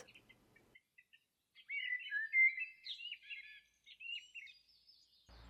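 Birds sing high in the treetops of an old Jewish cemetery in Switzerland, a stream of bright chirps and warbling trills that grows fuller after a few scattered early calls, moderately loud, with no voices.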